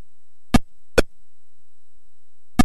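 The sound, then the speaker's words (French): Three short electronic blips from an Atari Pong-style ping-pong video game: two quick ones close together, a pause, then a third. Crisp and clear against silence, with no talking. “Et en fait, ce qui me fascine vachement, c'est comment est-ce qu'on est passé d'un premier jeu vidéo ping-pong de chez Atari avec un simple bip”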